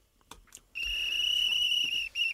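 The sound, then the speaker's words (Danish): A loud, steady high-pitched whistle sounds for over a second, breaks off briefly, then gives one more short blast. A couple of faint taps come just before it. “det er jo en lidt lang fløjte der, inden vi går i gang med de første emner her i årets sidste repost”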